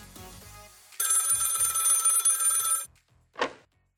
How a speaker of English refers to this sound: Hang on, I'll turn the volume down while I answer the phone.